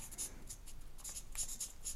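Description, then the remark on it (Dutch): Handwriting on paper: the word 'drinkbeker' (drinking cup) is written on a reminder note, in quick, scratchy pen strokes in short irregular bursts, light and hissy, with no talking over them. “En ik ga gewoon eh, ook drinkbeker opschrijven Dan eh, weet ik dat ook.”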